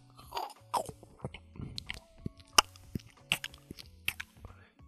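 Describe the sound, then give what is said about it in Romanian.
Crisp crunching and wet chewing from someone eating in an ASMR recording, with irregular bites and smacking sounds repeating steadily for several seconds, no talking. “Bă, frate, deci dacă eu nu pot să aud ASMR-ul de asta.”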